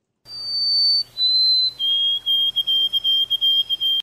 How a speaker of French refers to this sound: Maintenant, c'est ce chant qu'on entend le plus souvent quand un bruant chante.